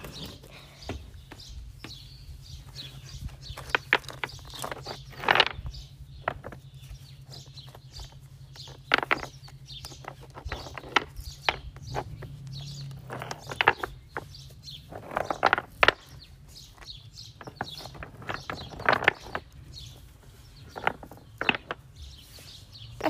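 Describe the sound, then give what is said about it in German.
Stones being pulled out of a stacked stone pile, clacking and knocking against each other in irregular bursts of sharp, hard hits, over a steady low hum, with no talking. “waren Steine, die ich halt von so einem Steinhaufen übereinander oder halt, und halt rausgezogen habe, ein paar und so.”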